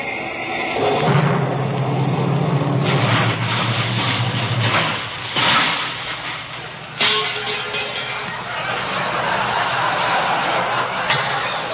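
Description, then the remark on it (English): A car starter cranks briefly, then the engine of the car, which has a tank full of nitroglycerin instead of gasoline, blows up in a loud explosion, followed by a long roaring rumble of noise with several further bangs and crashes. “Just listen to this motor purr when I step on the starter.”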